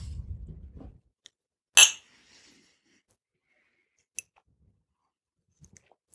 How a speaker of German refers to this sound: Darauf einen Schluck Cremant.